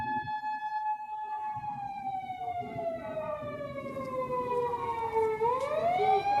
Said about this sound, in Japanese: あ、ちょ、ピーポーが来たな。こっち来るかな。